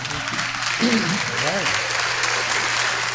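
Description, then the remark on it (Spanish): A room full of legislators stands and claps steadily in a dense, sustained round of welcome applause for visiting YouTubers, with a voice briefly rising over the noise partway through. “En estos momentos yo invito a los diputados acá presentes a que nos pongamos de pie y les vamos a dar un aplauso de bienvenida a los youtubers que ahora nos acompañan.”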